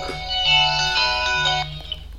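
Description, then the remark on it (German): A phone ringtone plays in steady bursts, bright high tones stacked over a low repeating pulse, fairly loud and sustained for about two seconds before trailing off. “Äh, lass das klingeln.”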